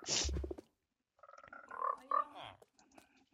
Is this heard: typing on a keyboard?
no